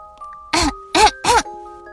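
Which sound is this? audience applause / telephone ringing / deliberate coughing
deliberate coughing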